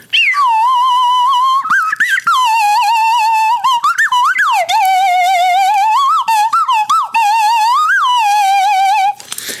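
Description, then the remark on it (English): A slide whistle plays a loud, continuous reedy tone for about nine seconds, swooping and wobbling up and down in pitch with quick upward glides, and no one talking. “I have to do it on a slide whistle.”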